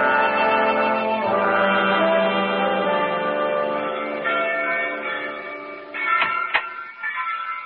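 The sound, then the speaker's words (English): Church bells peal continuously for a wedding, their overlapping ringing tones blending into a dense, clanging wash, with a couple of sharper strikes standing out near the end. No voices are heard. “I would have done more if it hadn't been for those infernal bells.”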